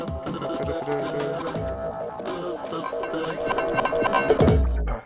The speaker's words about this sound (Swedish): Ja, om det låter som, det är lite, det är lite gnissel i, soff, eller i fåtöljen idag.